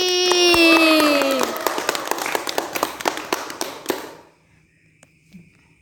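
An audience breaks into applause, dense clapping that thins to a few scattered claps and stops after about four seconds. A high, falling whoop sounds over the opening.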